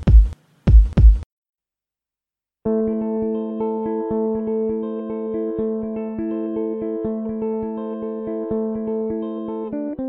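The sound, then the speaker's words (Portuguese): A short intro jingle of the show Performando on THE Cast: two deep heartbeat-like thumps, a brief pause, then a bright, steady electronic melody with sustained synth tones that plays on to the end. No one speaks. “Então solta a vinheta e o programa vai começar.”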